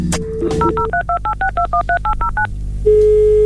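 A telephone number is dialed: a quick, even run of about a dozen beeping touch-tone pairs, preceded by a brief tone and followed by a steady ringing tone on the line. No one speaks.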